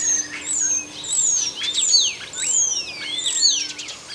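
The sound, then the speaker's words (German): A starling sings a busy medley of chirps, rattles and clear whistles, including pure gliding whistled notes rising and falling as it imitates a clear whistle, with a faint steady hum underneath throughout. “Und witzigerweise, den letzten Pfiff, den macht er immer gerne nach.”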